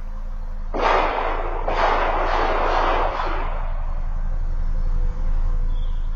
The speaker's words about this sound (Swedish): Han avlossar skott efter skott och måltavlan tycks vara en av de väntande resenärerna som sitter på bänken.